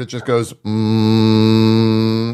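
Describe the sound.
A brief spoken phrase, then an AI voice hums a steady, unwavering drone for about two seconds, mimicking the constant hum of a running microwave oven, fairly loud.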